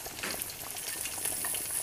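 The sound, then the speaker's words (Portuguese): Bacon sizzles steadily in a hot pan as it finishes cooking, a dense crackling hiss with scattered pops, fairly loud, with no voices over it. “Enquanto o bacon termina aqui, aliás, eu vou deixar o bacon terminar.”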